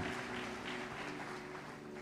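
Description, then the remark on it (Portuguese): Steady audience applause fills the whole stretch, a dense, even wash of many hands clapping at moderate loudness, with a faint low hum beneath it and no talking. “Aplaude, Deus aplaude.”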